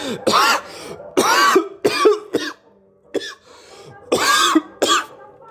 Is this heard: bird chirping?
no